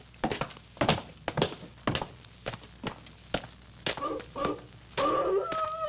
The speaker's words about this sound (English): Huh? What's that? Sounds like a wolf. That ain't what the wolves sound like down in California. You're thinking of the Hollywood kind. This is the real McCoy. When you hear a dog howl like that, they say he's sitting on somebody's grave.